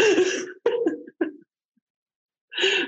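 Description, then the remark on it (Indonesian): A harsh throat clearing followed by a few short, rough coughs, then a pause and another raspy clearing burst, fairly loud, with no talking; a person clearing something stuck in the throat while holding back laughter. “Gue pengen ketawa tapi saking nggak bisa gue terimanya jadi ada yang nyangkut di tenggorokan”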